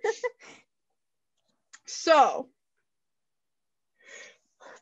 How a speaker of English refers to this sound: Bless you.